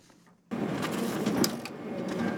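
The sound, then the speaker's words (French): A printer starts up after a brief quiet moment and runs steadily with a loud mechanical whirring and rattling, with occasional clicks and no voices, as young people in Molenbeek print course syllabi for students. “L'imprimante chauffe et chacun est à son poste.”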